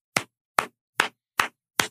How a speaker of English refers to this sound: I clapped.